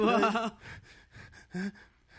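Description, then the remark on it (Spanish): A voice imitates nervous breathing: a loud voiced gasp, then several quick, ragged, breathy puffs and one more short gasp, with no words spoken. “¿Respirando así?”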